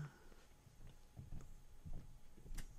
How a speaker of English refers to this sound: my son, whose footsteps I hear through the ceiling above me